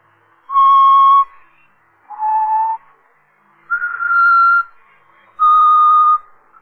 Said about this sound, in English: That that song. Did you ever hear it before? Yeah. bet you did. He's always whistling it. I heard him myself when he killed the last one.